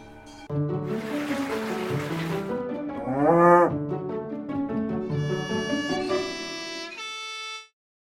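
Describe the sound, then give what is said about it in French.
Cows on the Nava alpine pasture, brought up to the alp the previous weekend, moo in long, drawn-out calls that overlap and shift in pitch, loud, with a brief rush of background noise early on and no talking. “donne un sacré coup de main à l'équipe de l'alpage pour s'occuper des vaches qui ont alpé le week-end dernier.”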